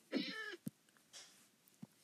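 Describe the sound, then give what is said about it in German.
A single loud cat meow with a rising-then-falling tone, followed by a few soft clicks and faint rustling in otherwise quiet surroundings. “Puh, Katzen können einen nicht hitten.”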